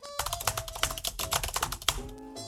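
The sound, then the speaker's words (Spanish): Rapid, uneven clicking of keys on a computer keyboard as a password is typed, steady for a couple of seconds, with a faint electronic tone underneath and no talking. “Sonido contraseña, escribiendo la contraseña.”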